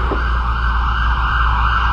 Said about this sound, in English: Now, those of you who worship here Sunday by Sunday must appreciate how that always happens right about now. Sirens every Sunday.